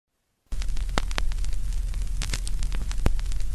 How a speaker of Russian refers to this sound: low-fi эффект – это имитирование плохого качества звука. Сейчас можете услышать.